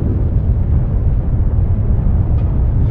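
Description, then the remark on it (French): A deep, sustained roar of a volcanic eruption explosion, loud and heavy in the low end, rumbling steadily throughout with no distinct breaks and no voices. “encore plus intense que l'explosion du volcan de l'île Krakatoa, en Indonésie en 1883”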